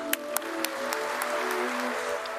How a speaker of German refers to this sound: Wir sind in Phoenix, Arizona, mhm. und wir hören, wie Geoffrey Hinton für seine Arbeit im Bereich der künstlichen Intelligenz ausgezeichnet wird. Mhm. Großer Applaus. Großer Applaus, ja. Es ist schließlich der Turing Award.